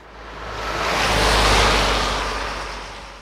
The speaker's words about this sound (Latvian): Satiksme nav intensīva, un parātam kāda automašīna patraucas garām.